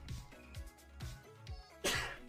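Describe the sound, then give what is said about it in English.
A single sharp, loud sneeze, the second of two, bursts out near the end over a low, rhythmic background of thumping tones. “I always think I can get away with one sneeze, and it's always two.”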